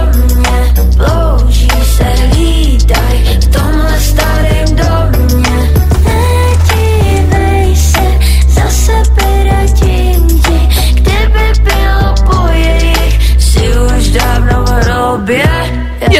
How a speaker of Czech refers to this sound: pustila taky ukázku ze svojí nové písničky, která vyšla teď na Halloween. Už je to venku, už si to můžete dát, zní to nějak takhle.